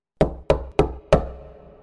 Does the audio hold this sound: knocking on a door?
yes